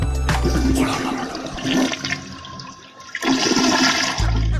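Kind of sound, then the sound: household object, toilet flushing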